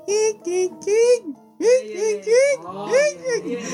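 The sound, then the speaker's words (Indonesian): A person's voice imitates a zebra dove's call: a quick series of about eight high, looping warbled notes in bursts, fairly loud, rising and falling in pitch. “setiap malam gue kesana itu pasti bunyi burung bunyi burung yang yang”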